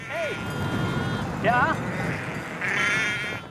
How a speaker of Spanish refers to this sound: A 100 kilómetros, en Urkulu, a 1.300 metros de altitud, un rebaño de 300 ovejas aprovecha al máximo los pastos de montaña.